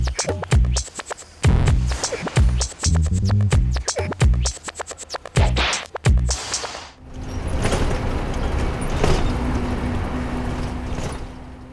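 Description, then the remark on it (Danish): A bus full of young passengers travels a battered country road in Ukraine: several seconds of sharp, rhythmic thumps and rattles give way to a steady rumble of engine and road noise. “På en ramponeret landevej i Ukraine kører en bus fyldt med unge passagerer.”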